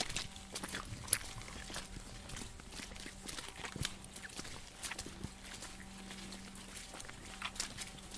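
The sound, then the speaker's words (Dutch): Slow, uneven footsteps squelch and shuffle through wet mud at night as people walk back to a bus, each step a soft muffled thud over a faint steady hum. No one speaks. “We nemen afscheid en in stilte stappen we door de modder weer naar de bus.”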